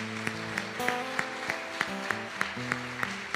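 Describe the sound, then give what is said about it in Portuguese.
An audience gives a round of applause to God over sustained keyboard chords, with sharp claps landing in a steady rhythm roughly three times a second, moderately loud, and no talking. “Vamos dar uma salva de palmas a Deus pela excelência.”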